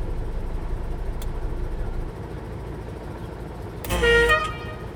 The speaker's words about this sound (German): eigentlich darf ich ja kein Martinshorn machen. Blaulicht und das kann man ja nicht hören. Ne?